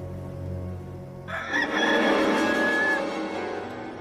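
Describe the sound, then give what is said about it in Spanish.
A rooster crows once, loud, its drawn-out call rising and holding before trailing off, following a low steady hum. “Y al instante cantó un gallo.”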